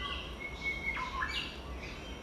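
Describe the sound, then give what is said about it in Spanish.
Small birds chirp faintly, a few thin whistled notes and quick rising tweets scattered over a steady low outdoor rumble, with no one speaking, while someone walks through a fir and beech forest in central Croatia. “Y sigo caminando y me cruzan pajaritos y mariposas.”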